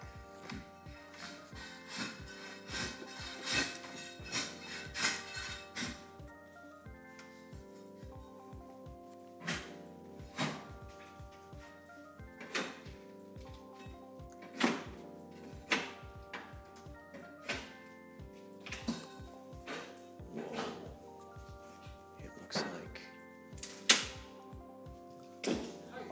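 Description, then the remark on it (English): Repeated muffled thunks and knocks from the apartment next door, irregular bursts of hammering and tapping as hardwood floors are being installed, heard at moderate loudness with no talking. “You're putting hardwood floors in the in the in the apartments.”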